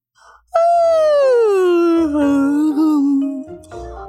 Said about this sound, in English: Plod Plod Tortoise let out a huge yawn.